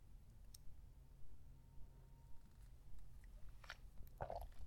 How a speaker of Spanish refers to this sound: Pausa para trago de café.